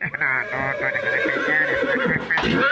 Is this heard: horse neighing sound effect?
yes